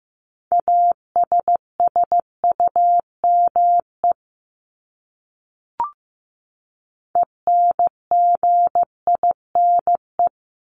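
Steady single-pitch Morse code beeps sending common English words at 15 words per minute, short dots and longer dashes in two bursts separated by a brief pause with one faint click, no voices.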